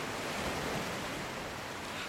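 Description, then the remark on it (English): A steady, hissing wash of ocean surf plays from speakers inside a dome at a moderate level, smooth and continuous with no distinct breaking waves and no voices. “The sound of the ocean smoothly pours from the speakers.”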